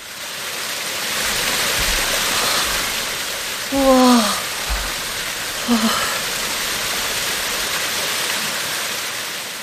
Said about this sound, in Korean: 쏟아지는 폭포가 만들어내는 소용돌이 도 거셌다. 바닥에 보이지 않는 짙은 물빛은 아름다우면서도 위협적이었다.